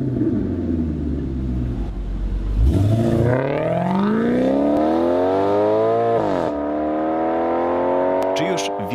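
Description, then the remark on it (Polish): A Maserati GranTurismo engine idles low, then revs sharply, its pitch climbing steadily as it accelerates before a brief drop and another sustained high rev, loud with a rich exhaust note. “którego poprzednik mógł i wciąż może pochwalić się jednym z najładniejszych brzmień silnika i wydechu w historii motoryzacji.”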